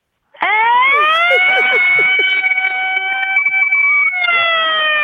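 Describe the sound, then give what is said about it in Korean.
A voice imitates an American ambulance siren, a loud wail that swoops upward and holds a steady high tone for several seconds, with a brief dip before the end. “미국 엠버러스로 끝내겠습니다.”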